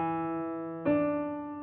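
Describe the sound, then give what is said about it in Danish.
A musical seventh interval: one steady, bright electronic tone sustains, then a second note enters just past halfway and the two ring on together, clean, with no voices. “Her er en 7'er.”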